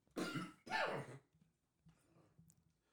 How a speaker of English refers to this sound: Oh, I'm about to cough.